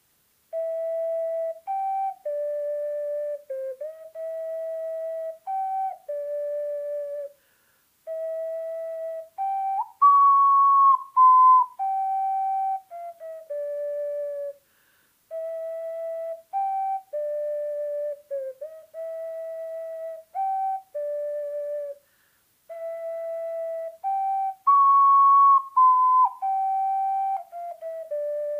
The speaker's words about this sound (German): Ähm, ich werde es euch mal kurz vorspielen, damit auch in dem Podcast mal ein bisschen Ocarina-Musik mit reinkommt. Und äh, hört es euch mal an. Ich war fleißig am Üben.